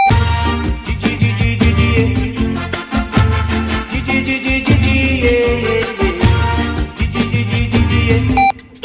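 A loud, full-band song plays steadily with punchy drums and bass, a singer stuttering a repeated "di di di" syllable over the music.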